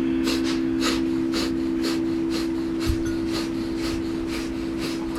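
Rapid, rhythmic nasal breathing of the breath of fire exercise, pumping the navel with equal parts in and out: quick forceful exhales and inhales in a steady pulse, around ten breaths, clear over a low steady background hum.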